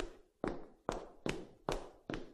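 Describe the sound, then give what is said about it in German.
Five footsteps in a castle fall in a steady, brisk rhythm, each a sharp hard-surface step with a short ringing tail. They sound fairly quiet, with no voices, only a faint background hiss between steps. “Horch mal, ich höre Schritte.”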